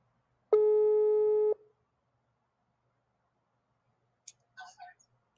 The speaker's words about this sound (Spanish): Déjenme agarro el número. Vamos a llamar por WhatsApp.